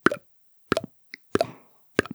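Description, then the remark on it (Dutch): A voice imitates water dripping from a tent roof with four wet mouth plops, spaced about two-thirds of a second apart in a steady rhythm, fairly loud, with a faint tiny blip between two of them. “En dat was het geluid van lopend water.”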